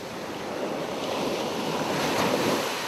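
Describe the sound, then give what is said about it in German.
Steady, continuous roar of ocean surf breaking on a shore, broad and washing, with some wind noise on the microphone and no voices. “Das ist der Sound des Urlaubs.”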